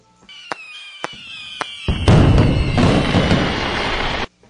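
Fireworks go off in a series of sharp cracks with whistling tones, then build into a dense, roaring barrage of bangs and crackles that cuts off abruptly. No one speaks.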